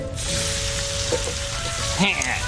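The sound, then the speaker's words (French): Bacon sizzles steadily in a frying pan, a dense, continuous crackling hiss, fairly loud for the whole stretch, with a faint murmur of a voice beneath it. “tu vas voir, je vais te griller ton lard.”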